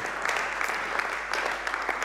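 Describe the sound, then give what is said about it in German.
Steady audience applause for a recently married couple, a dense wash of many hands clapping with scattered sharper claps popping out, continuous and moderately loud throughout without any voices. “Ja, Applaus für die beiden.”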